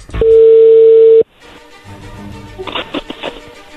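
A loud, steady telephone tone holds for about a second and cuts off abruptly, followed by quieter line hiss with faint clicks and bursts, as when a call is being placed.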